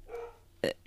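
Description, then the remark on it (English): A single sharp dog bark sounds out loud, preceded by a quieter whine or yip, with faint background noise around it. “Excuse the dog if you can hear it.”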